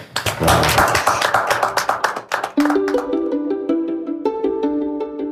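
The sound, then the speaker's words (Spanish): A burst of applause, dense rapid clapping from a group, fills the first half before fading as a bright melodic music jingle takes over. “Un aplauso.”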